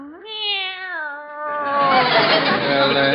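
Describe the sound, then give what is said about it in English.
A pet cat named Minerva, brought over to be left for the afternoon, lets out one long, drawn-out meow, loud, that slides into a harsh, raspy yowl for its final seconds. No one speaks over it. “I just dropped by to leave our cat with Harriet for the afternoon.”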